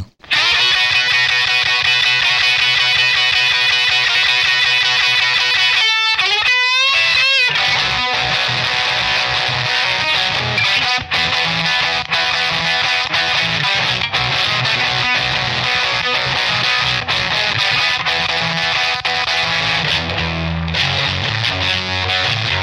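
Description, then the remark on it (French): A heavily distorted electric guitar, plugged into a mixing console with the console preamp saturated, plays a loud, fuzzy, saturated riff, with a brief bending glide near the middle before the gritty chugging continues, no voices present. “mais en branchant la guitare dans la console, en saturant le préampli de, de, la console et en enregistrant ensuite ce son.”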